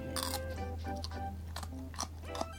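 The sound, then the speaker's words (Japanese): Crisp crunching of someone chewing takuan (pickled daikon radish), trying to chew it as finely as possible, several quick bites in an uneven rhythm over a steady low hum, with no talking. “でもできるだけ噛み砕くんでしょペーストにしろってことだよね すごい一生懸命噛んでる”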